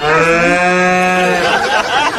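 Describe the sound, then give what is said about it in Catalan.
A cow lets out one loud, drawn-out moo during a wedding ceremony, holding a steady tone for over a second before breaking into a rougher, noisier finish. “és el moment en què una vaca va decidir intervenir, invair la cerimònia, i no ho va fer només un cop.”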